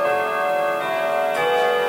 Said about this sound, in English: It'll stop once it's has gone through its cycle. Uh, we'll I get forgot about that. It's ambiance. Um, well, we're talking about haunted oh, mansion, so it's uh, that. It's the uh, the clock. It won't strike thirteen times though.